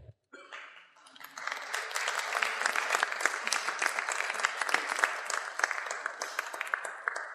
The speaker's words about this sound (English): So as the one person and the two or three wonderful volunteers come forward, if you could just give them a warm round of applause, because I mean them right down here.